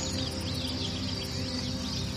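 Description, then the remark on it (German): A steady outdoor ambience at a lake in sunshine, with a constant high insect buzz and scattered faint bird chirps over a low, continuous background hum. “Schließ ruhig für einen Moment deine Augen und lausche einfach dem See.”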